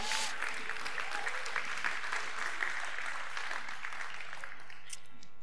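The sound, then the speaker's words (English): An audience applauds the band in a dense, steady wash of clapping that holds for about five seconds before thinning out at the end, with no voices over it. “Put your hand together for the band here today.”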